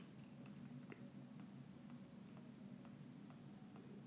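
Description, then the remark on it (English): Soft, light taps repeat at a steady, quick pace as someone types on a phone touchscreen while searching through their tweets, faint against a low, constant background hum with no one talking. “All you hear is you typing your phone.”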